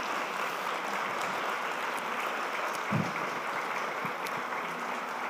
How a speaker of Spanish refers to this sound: Denles un aplauso a estos preciosos varones.